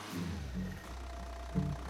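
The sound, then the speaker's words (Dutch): The engine of an automatic car standing in park idles with a steady low hum, rising in a few short revving surges as gas is given before settling back, with no voices. “Hij zegt, sterker nog, het is best om even een beetje gas te geven. Dat kan makkelijk, want hij staat gewoon in de P van parking.”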